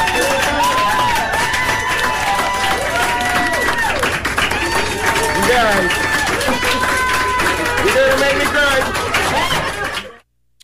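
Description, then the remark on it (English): A large audience claps steadily for about ten seconds after the 15th round, a dense, loud wash of applause mixed with cheering and shouting voices, then it cuts off abruptly. “It was just clap.”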